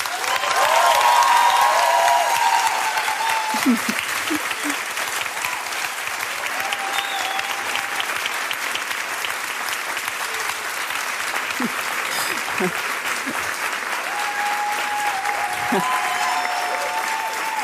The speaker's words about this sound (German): Und jetzt möchte ich nochmal einen richtig fetten Applaus für Mohammed Amjahid hören.